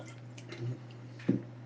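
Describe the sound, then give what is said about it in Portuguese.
A quiet sip of water: two soft wet gulping sounds about half a second apart, with faint background hiss and no talking. “Eu bebi meu gole d'água aqui.”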